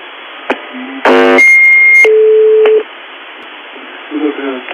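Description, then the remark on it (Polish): On the UVB-76 shortwave frequency, a brief harsh radio buzz cuts through static, then gives way to steady electronic tones, a high whine followed by a lower hum. A faint murmur of voices follows. “Zamiast tego można było usłyszeć buczenie.”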